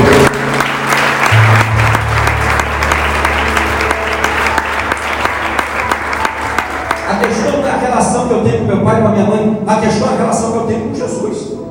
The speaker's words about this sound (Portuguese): Ah, você podia até aplaudir Jesus, não podia?